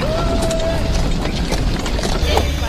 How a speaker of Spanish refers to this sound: Las carretas de la época colonial hacían ruido con sus ruedas al pasar por las calles de piedras y de tierra.